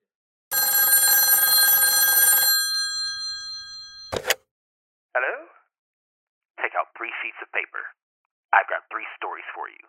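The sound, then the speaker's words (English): A telephone bell rings loudly and steadily for about two seconds, then stops; a sharp clack follows, and a voice begins speaking in short bursts. This reenacts a phone call received by Bill Gibbons, managing director of the Gaffney Ledger newspaper, in Gaffney, South Carolina, on February 8th, 1968. “Bill Gibbons, a managing director for the local paper called the Gaffney Ledger, receives a phone call.”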